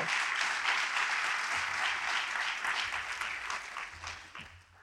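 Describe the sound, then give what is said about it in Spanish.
A crowd claps steadily in a dense, sustained wash of applause for Christ during a sermon, holding strong before tapering off toward the end. “Fuerte, fuerte el aplauso para Cristo.”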